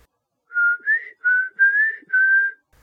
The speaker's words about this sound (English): We turn the spirit box on, we start to ask questions, and during this time, we start to hear whistling.